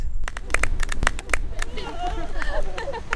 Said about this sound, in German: Die Katholikinnen rundherum zollen Beifall. Es sind Katholikinnen aus der Schweiz, Amerika, Südafrika, Indien, Deutschland und Spanierinnen werden noch erwartet. Sie alle bleiben zwar mehrheitlich draußen, vor den hohen Mauern des Vatikans